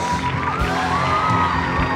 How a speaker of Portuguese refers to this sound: Sei que você pode aplaudir o Senhor. Ele é fiel. Ele está vivo. Ele é Deus.